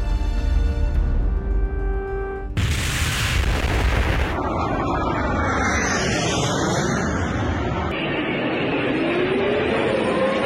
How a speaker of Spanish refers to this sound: Las explosiones comenzaron a escucharse en varias ciudades ucranianas.